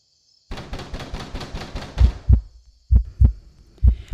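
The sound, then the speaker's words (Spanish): A pounding heartbeat sound effect: deep, thudding low beats in uneven pairs, preceded by a quicker, busier stretch of rapid pulsing, with no voices present. “Abrió los ojos latiéndole fuertemente el corazón, como cuando tenía pesadillas.”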